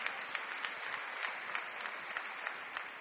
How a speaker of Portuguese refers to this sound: Pode aplaudir, Jesus.